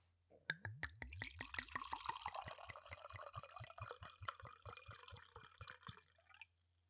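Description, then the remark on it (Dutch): Palm beer, from a just-opened bottle, glugs into a glass in a quick run of rhythmic gurgles, with fizzy, bubbly pouring that rises and then tapers off as the glass fills. Fairly loud, with no talking. “Ik trek hem open. Mooi. ik ga hem inschenken.”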